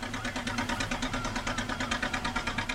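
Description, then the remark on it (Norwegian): The engine of a sjark, a small Norwegian fishing boat heading out along a fjord, chugs steadily, a rapid, even putt-putt rhythm with a low throbbing hum underneath, running on its own at a moderate level without any talking. “En sjark som tøffer utover fjorden.”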